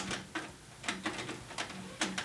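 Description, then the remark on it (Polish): A cassette deck rewinding tape: a low, wavering motor whir runs under a series of sharp mechanical clicks and rattles, arriving in uneven bursts. No one speaks. “Ja myślę, że tutaj więcej nie trzeba już y, opowiadać, bo jak sami Państwo słyszą, dźwięki wydaje podobne jak tamten poprzedni Sony więc myślę, że możemy już przejść do prezentacji.”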